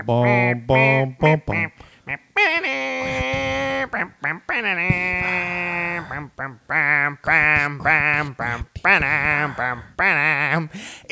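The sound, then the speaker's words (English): Someone imitates a beaver with loud, nasal, quacking squawks, a run of short choppy bursts broken by a few longer, wavering held cries, with no words spoken. “That's my beaver your beaver sound.”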